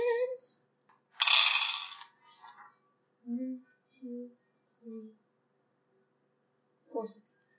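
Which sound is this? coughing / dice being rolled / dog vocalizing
dice being rolled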